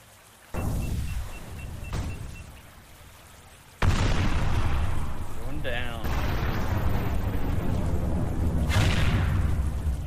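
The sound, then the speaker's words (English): A series of heavy explosions, five or so loud booms spaced a second or two apart, over a continuous deep rumbling as a whole ship shakes, with some voices mixed in. “you basically hear like like I don't know five or six different sort of explosion noises and things as the whole ship kind of like rumbles”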